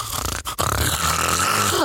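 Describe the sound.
Someone mimics a man lying on his back snoring louder than ever: a short rasping burst, a brief gap, then a longer, harsh, rattling snore held loud for over a second.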